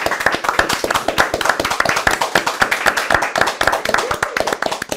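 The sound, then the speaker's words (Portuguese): A crowd applauds steadily for several seconds at the close of the programme Pratas da Casa, dense overlapping claps forming a loud, continuous wash of clapping with no one speaking over it. “Uma salva de palmas, por favor.”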